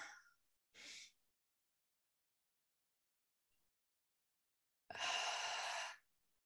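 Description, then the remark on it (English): Deep breathing during a guided breathing exercise before training: a couple of short airy breaths near the start, a long silent pause, then one long, loud, breathy exhale lasting about a second. “Nice big inhale.”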